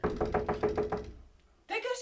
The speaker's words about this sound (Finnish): Eihän tuo pahoa tykännä, jos koputtaa ovelle